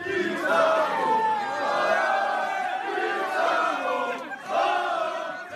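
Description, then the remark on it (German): A loud, dense crowd of Werder football fans roars and cheers continuously at an airport as they greet an arriving player, many voices blending into a sustained wall of shouting that swells again near the end. “Es war sehr laut, das weiß ich noch, und die Leute stürzten sich gefühlt schon auf ihn.”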